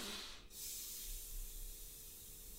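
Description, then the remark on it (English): A steady, breathy rush of air blown through a blade of grass held between the fingers for nearly three seconds, moderately loud, with only a faint low hum underneath rather than a clear reedy squeal. There is no talking. “It's the grass you can put between your fingers, and you kind of go like,”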